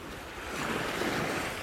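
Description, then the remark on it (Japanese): Ocean surf of big and small waves in early August rushes in with a steady, roaring hiss that swells louder after a brief moment and holds, like waves breaking and washing onto the shore, with no voices. “僕が帰ると間もなくまだ8月に入ったばかりなのに海はその表情を変え始めた白い歯をむき出して大波小波を僕にぶっつける”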